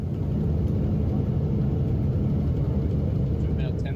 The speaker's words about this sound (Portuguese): A medida foi anunciada depois que o motor de uma aeronave sofreu uma grave pane e pegou fogo durante o voo nos Estados Unidos. De dentro do avião, um passageiro gravou o motor em chamas.